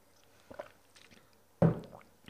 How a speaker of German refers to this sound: Huiuiui, da muss ich mir kurz nochmal ein Wasser trinken drauf, ja?